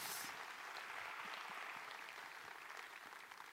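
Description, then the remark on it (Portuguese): An audience breaks into sustained applause for the Lord Jesus in the morning, a dense, steady wash of many hands clapping together, with no voices heard above it, holding fairly even before easing slightly at the end. “Quem está comigo aí, pode dar um aplauso ao Senhor Jesus nessa manhã?”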